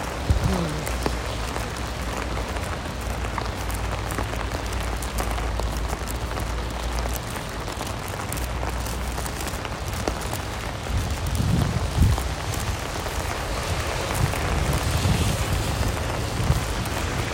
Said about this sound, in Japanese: よいしょわあすごいわ滝のように流れてる雨が